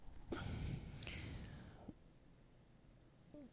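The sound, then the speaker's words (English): A single drawn-out yawn, a breathy, airy inhale and exhale with a slight voiced groan, lasting over a second before fading into near silence. Quiet, with no talking. “You're yawning.”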